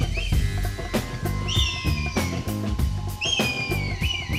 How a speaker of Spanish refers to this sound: Dulce y aflautado silbido. Sonido agudo y penetrante. Difícil de pasar por alto. Esta es la distintiva y clara llamada del Milano Real. Esa ave de presa elegante, soberbia